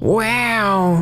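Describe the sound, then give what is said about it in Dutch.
A person roars like a lion in a single loud, drawn-out vocal cry lasting about a second, its pitch rising quickly then sliding slowly down. “En even schreeuwen als een leeuw.”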